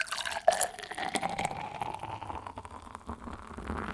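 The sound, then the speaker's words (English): Liquid pours steadily for about four seconds, a continuous splashing gurgle with a sharp drip or clink near the start and no voices over it. “Pour one out for the x86.”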